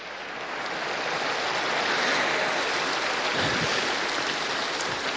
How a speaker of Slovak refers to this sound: Zverme ich Božej Matke, Pane Mári, jeden veľký potlesk pre naše mami a staré mami.